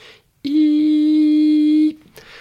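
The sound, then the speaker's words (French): A voice imitates the thin, steady, high-pitched whistling of tinnitus, held loud and unwavering for about a second and a half with no talking around it. “Des acouphènes, alors il y en a deux types pour moi, il y a ceux dans les aigus, donc c'est le petit sifflement type”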